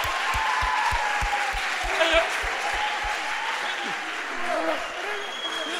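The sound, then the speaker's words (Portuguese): A crowd breaks into sustained, dense applause, with steady rhythmic thumps underneath for the first few seconds and scattered cheering voices rising through the clapping. “Uma salva de palmas!”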